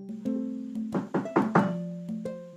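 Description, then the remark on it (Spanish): A neighbor knocks on a wooden door: four quick, fairly firm knocks in a steady rhythm over a soft, sustained musical background. “Unos minutos más tarde, alguien toca a la puerta.”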